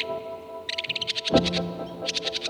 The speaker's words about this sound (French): Le que Polyglotte est même connu pour chanter en pleine nuit, alors que c'est pourtant un oiseau diurne. Euh, c'est un ardent défenseur de territoire, c'est un oiseau très agressif, dont le caractère est à la hauteur de son chant.